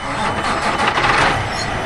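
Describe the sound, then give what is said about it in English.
Big triple road trains, livestock trucks fueling up at a refueling depot in Katherine, rumble with heavy engines idling in a steady, continuous drone with a broad hiss of mechanical noise and no voices. “at a refueling depot in Katherine next to a couple of triple road trains, livestock trucks that are fueling up before they head off to move some more cattle.”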